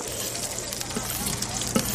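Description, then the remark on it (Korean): Smelt deep-frying in hot oil and turning golden, a steady, dense crackling sizzle with faint bubbling pops throughout and one sharper pop near the end. No voices. “여러분, 이 소리 들으세요 아, 빙어를 기름에 완전 튀기고 있네.”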